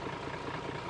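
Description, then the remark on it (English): A bulldozer engine idles steadily on the beach at Ngawi, where fishing boats are launched into the ocean by bulldozer, a loud continuous diesel rumble with a regular low chugging pulse and no voices. “I'm down at the Ngawi beach and that sound you can hear is the sound of a bulldozer all of the fishing boats in Ngawi are essentially launched into the ocean by bulldozer.”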